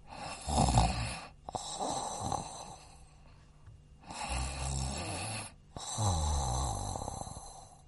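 sound effect, snoring

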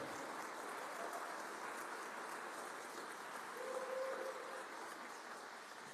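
crowd, audience applauding

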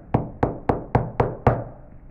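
household object, knocking on a door

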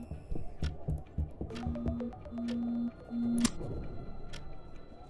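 signal or alarm, phone alarm ringing

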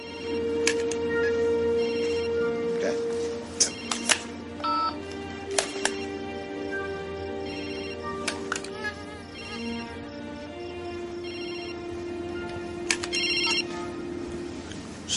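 signal or alarm, mobile phone ringtone ringing

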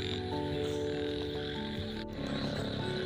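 animal, frogs croaking

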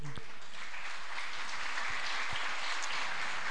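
crowd, loud applause

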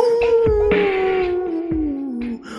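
sound effect, wolf howling in pain

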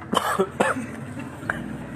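human body sound, cough

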